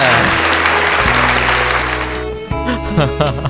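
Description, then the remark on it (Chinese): A burst of dense clapping applause fills the first couple of seconds over a low sustained tone, then fades as tonal sounds and a voice take over. “哎呦我，此处应该有点掌声啊，掌声。”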